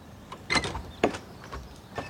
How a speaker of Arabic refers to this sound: فتح سمير أبواب السوبر ماركت